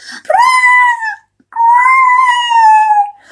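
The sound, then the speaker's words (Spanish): A dog lets out two long, drawn-out howling cries of about a second each, loud and steady in pitch, separated by a short pause, with no talking. “pero entonces volvió a ir a ladrar al perro.”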